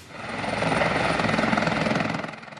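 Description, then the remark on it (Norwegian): An Oslo police helicopter flies by, its rotors making a steady, rapid thudding chop over a broad engine roar that swells, holds loud, then eases off slightly at the end. “Politihelikopteret kan overvåke, men ikke brukes til å skyte fra, sa stabssjef Johan Fredriksen.”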